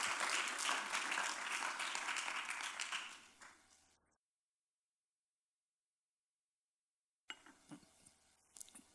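Dense audience applause fills the first four seconds, a broad crackling wash of many clapping hands that fades out, followed by silence and then a few scattered faint claps and small noises.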